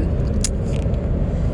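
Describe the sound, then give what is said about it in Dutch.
Steady low rumble of a car engine and road noise from inside a moving vehicle, with a brief faint high jingle or click partway through. “Ja, een podcast vanuit de auto.”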